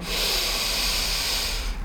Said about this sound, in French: Tu vas inspirer par le nez en gonflant ton ventre comme un ballon.